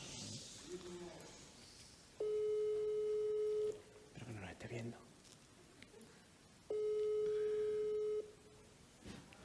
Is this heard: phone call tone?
yes